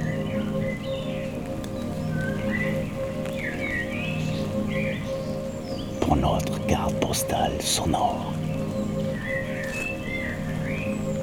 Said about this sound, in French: Mais pourtant, la beauté de ce lieu magique et de ce massif forestier perdu dans la brume reste intacte. Bienvenue sous quelques gouttes de pluie